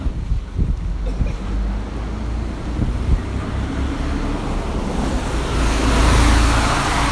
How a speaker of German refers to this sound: Ja, wir sehen es hier gerade an der Straße. Kein fucking Auto hält an.